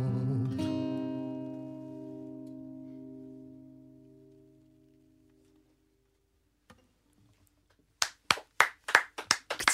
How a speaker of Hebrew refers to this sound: קצת, קצת, אי אפשר, אי אפשר בלי מחיאות כפיים.